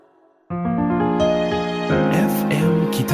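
Pop music starts abruptly after a half-second of near silence: sustained synth chords and a steady bass, then brighter layers and percussive hits build in loudly with no one talking.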